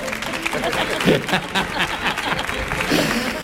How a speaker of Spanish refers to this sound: Eh, fuerte el aplauso para